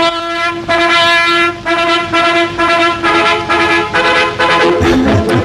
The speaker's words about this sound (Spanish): ¿estáis convencidos de que todo el mundo sabe a estas alturas que era la sintonía de un espacio propagandístico del